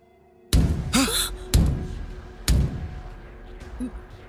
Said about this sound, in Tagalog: May bisita ka ba? Wala. Wala tayong kasama rito. Tayong dalawa lang nandito sa unit. Eh sino yung kumatok?